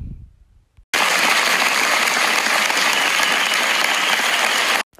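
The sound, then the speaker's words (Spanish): Loud, dense applause welcoming an interview guest, a senator of Colombia, bursts in abruptly after a brief low rumble, holds steady for about four seconds like a full crowd clapping, then cuts off sharply. No one speaks over it. “Un fuerte aplauso.”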